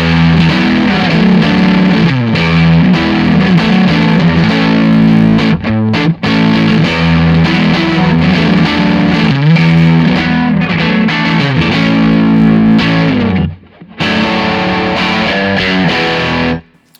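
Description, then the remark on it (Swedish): Loud, heavily distorted electric guitar played through a replica amplifier with its gain turned down slightly, playing chugging riffs and sustained chords, thick and saturated, with a brief gap just before the end and no talking. “Den, om du slår på replikan så spelar jag samma sak.”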